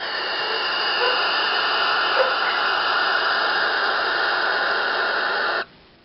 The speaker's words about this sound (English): But owls actually do make a hissing sound, like that was described that the creature made. Have a listen to this.